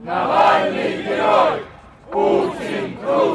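A large crowd of Navalny supporters, many of them exiled from their home countries, shouts in unison at a rally, chanting in loud rhythmic bursts with a brief pause midway before the chant resumes.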